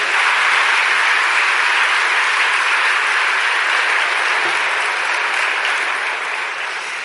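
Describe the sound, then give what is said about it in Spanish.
An audience applauds steadily for the name of the Lord, a dense, even roar of many hands clapping that holds strong for several seconds before easing slightly toward the end, with no voices rising above it. “Démosle un aplauso fuerte al nombre del Señor.”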